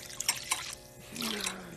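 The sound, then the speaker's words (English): A splash of beer is poured into completely cooled melted butter to make a sauce: a few bright drips and splatters, then a steadier liquid rush, with a low voice faintly murmuring near the end. “This part is optional, but with that melted butter that's completely cooled off, we're gonna pour a splash”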